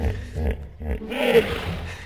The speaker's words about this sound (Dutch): Ja, dit lijkt ergens op Maxima in Lucky TV, toch? Maar goed, het is een, een, een nijlpaard.